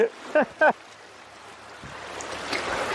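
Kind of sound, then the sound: nature, small waves lapping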